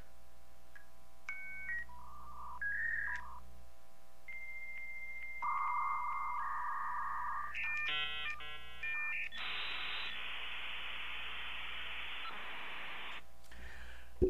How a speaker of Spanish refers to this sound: El Internet, amigos, para conectarse a Internet, para navegar en la web, eh, que escuchábamos ese sonido tan raro y tan feo. La verdad es que era feo, el sonido es feo, pero nos trae recuerdos muy, muy, muy bonitos.